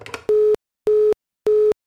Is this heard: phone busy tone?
yes